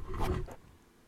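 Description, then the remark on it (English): A little dog's nose bumps and snuffles right against the microphone, leaving it wet, giving a burst of muffled thumps and breathy rustling that fades after about half a second. “I don't know if you can hear like the nose pats on that.”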